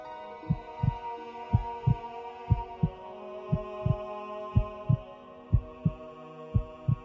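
A fetus's heartbeat pulses in paired low thumps, lub-dub, about ten beats over a continuous soft hum with no voices.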